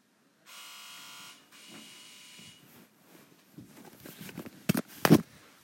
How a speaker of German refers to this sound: Hat gerade unsere Klingel geklingelt.